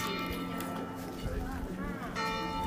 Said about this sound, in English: Taking a, a recording of the church bells. I love church bells.